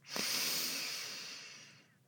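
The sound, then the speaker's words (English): A single long, deep inhale drawn in through the nose during a grounding breathing exercise, airy, swelling quickly then tapering off over about two seconds with no talking. “Let's take a few deep breaths to ground, breathing in through your nose”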